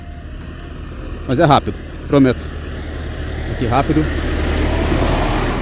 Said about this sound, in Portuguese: Olha a barulheira, barulheira. Passou um trator por mim já e o barulho está a diminuir.